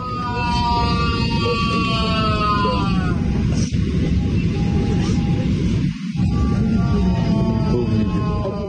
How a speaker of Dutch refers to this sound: En tijdens die vlucht werd hij plotseling onwel. Op Twitter zijn beelden verspreid waarop Navalny in het vliegtuig schreeuwt van de pijn.